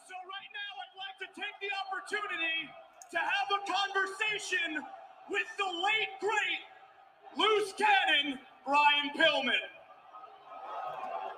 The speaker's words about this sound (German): Die Zuschauer auf jeden Fall wollen ihm eigentlich gar nicht zuhören. Kann gar nicht hören, was sie da schreien, aber sie rufen auf jeden Fall frenetisch laut im Chor.